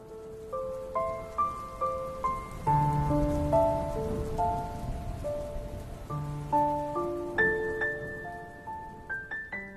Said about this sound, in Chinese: 从一大早就下起雨来，下雨本来不是什么稀罕事儿，但这是春雨。俗话说“春雨贵似油”。而且又在罕见的大旱之中，其珍贵就可想而知了。